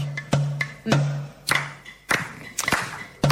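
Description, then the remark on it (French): Sparse audience applause: a dozen or so sharp, separate claps in an uneven rhythm, moderately loud, over a steady low hum, with no voices. “Bonsoir à tous, bonsoir à tous, bonsoir à tous, bonsoir applaudissements public, bonsoir, bonsoir à tous, bonsoir”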